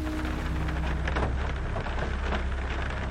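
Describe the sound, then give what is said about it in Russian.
Heavy rain pours down steadily, a dense patter of hard, heavy drops drumming on the ground with no voices, holding the same intensity throughout. “Приблизительно в этот момент забарабанили капли дождя”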